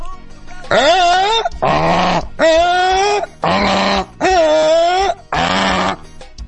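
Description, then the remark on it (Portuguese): A person imitates a moose call with six loud, drawn-out, nasal bellows in quick succession, each a sustained groaning tone separated by brief pauses. “Eu tenho outra imitação de Alce aqui.”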